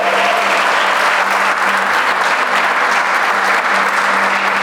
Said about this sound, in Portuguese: Posso ouvir um amém aí, um glória a Deus e um aplauso? Pelo amor do nosso Senhor.